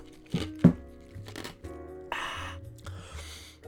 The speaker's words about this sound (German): Mm, auch nochmal das Eis gekaut.